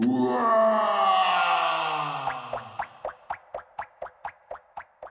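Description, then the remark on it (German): A deep, drawn-out monster groan and moan, from a monster that has crept into a recording studio, slides downward for about two seconds, then breaks into a string of short, rhythmic grunting bursts that fade out. No one speaks. “Und vertreiben das Podcast-Monster, das sich hier zu mir ins Aufnahmestudio geschlichen hat.”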